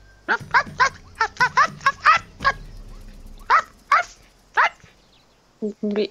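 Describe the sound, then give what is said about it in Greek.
A human voice imitates a dog barking: a rapid run of about eight sharp barks, then a few slower, spaced yaps, ending in two lower, softer woofs. “Προχωράτε λοιπόν και μόλις κάνετε μερικά βήματα πίσω από τα δέντρα εκεί στο νεκροταφείο ακούγεται ένα αγάφισμα.”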